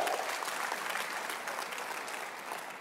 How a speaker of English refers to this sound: If you believe it, clap your hands and give God praise.